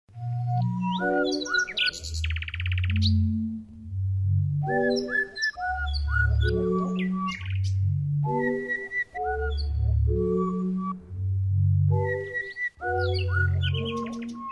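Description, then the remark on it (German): Songbirds chirp and whistle almost without pause, layered bright calls repeating in short bursts, loud, with no voices. “Das ist ein schöner Moment, wenn man sieht, dass die Vögel dann wieder in ihren natürlichen Lebensraum zurück können.”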